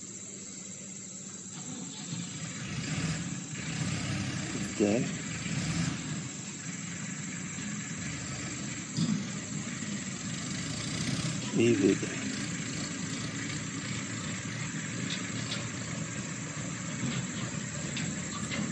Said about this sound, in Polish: Pomimo tego, że tu ciężarówka nam wystartowała w trakcie,